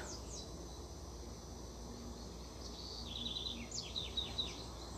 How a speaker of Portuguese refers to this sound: Estão escutando o canto dos pássaros? Delícia, né? Eu estou no Rio de Janeiro, né? Eu moro no Rio de Janeiro, em Santíssimo. Outro barulho é dos carros lá fora. Mas esses pássaros aí amanheceram cantando aqui na minha janela.